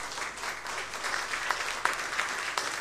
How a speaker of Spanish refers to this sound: Y un aplauso para Dios